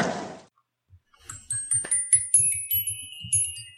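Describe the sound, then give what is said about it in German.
Small bells tinkle in a quick, uneven run of bright, ringing strikes, several sounding slightly off-pitch against each other, with a brief rustle just before they start. “Ich glaube, die sind verstimmt das macht nichts.”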